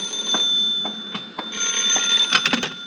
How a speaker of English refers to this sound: Answer the phone, will you?